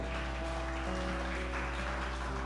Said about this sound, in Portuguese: Salva de palmas com autoridade.